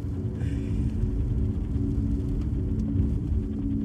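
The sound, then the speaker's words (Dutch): A steady, heavy low-frequency engine rumble fills the cabin of a moving car driving to Drenthe in the Netherlands during rush hour, constant and droning throughout with no voices, just the muffled hum of driving. “Maar toch zitten we een half uur later in de auto.”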